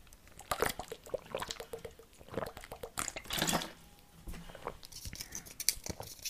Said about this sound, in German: Oh, ich muss mal kurz einen Schluck Wasser trinken.